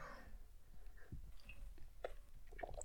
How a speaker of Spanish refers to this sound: Esa fue pausa para trago de café.